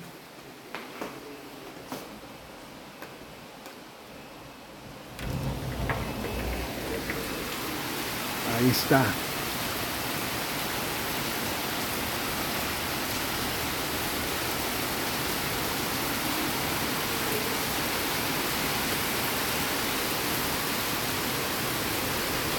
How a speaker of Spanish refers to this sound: Siempre les he puesto el sonido del mar y ahora les pongo el sonido de la lluvia, un poquito, un ratito. Mientras les digo el otro poema para mi hermano. No sé si alcancen a escuchar la lluvia.